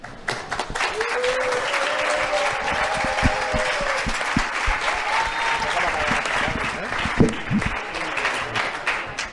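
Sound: audience applause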